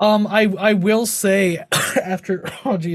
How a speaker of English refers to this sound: again that residual cough.